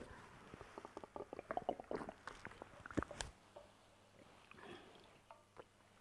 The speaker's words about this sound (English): And forgive me, let me just take water.